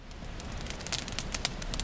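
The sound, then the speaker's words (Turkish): A steady outdoor fire, lit by villagers of Çambükü village who gather around it at the New Year, crackles and pops, sharp snaps scattered over a low rumbling bed of flame noise, with no voices. “Yeni yılda da Çambükü için adalet isteyen köylüler yaktıkları ateş etrafında toplanarak mücadeleye devam dedi.”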